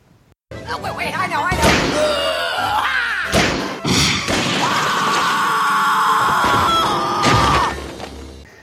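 A cartoon character slams into a wall with several loud, sharp thuds and crashes amid zany vocal noises, followed by a long, sustained high-pitched scream from a woman going out a window, holding steady before cutting off.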